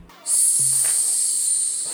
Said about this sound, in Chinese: 加热烧红，打打敲敲，淋水嘶嘶作响。